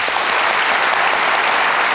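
A crowd applauds a woman seated in the audience, steadily for the whole two seconds, a dense, loud wash of many hands clapping with no gaps and no voices standing out.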